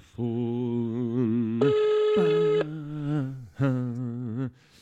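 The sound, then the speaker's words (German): A telephone rings during an outgoing call with a melodic electronic tone, a steady buzzy pattern that shifts pitch and briefly pauses, loud for about four seconds with no talking. “Und zack, anrufen. Geh mal ans Telefon.”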